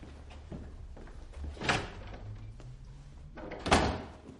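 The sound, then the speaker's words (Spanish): A man buttoning his shirt in the morning opens a door: a sharp latch click, a low creaking movement as it swings, then a second solid knock or thud as it settles, with no talking. “Se abrocha la camisa mientras llega hasta una puerta.”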